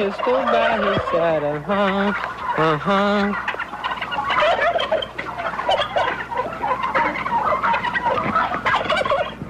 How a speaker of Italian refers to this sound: Sono i famosi 300 tacchini.